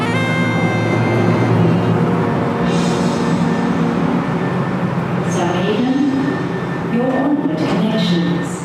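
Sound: train departing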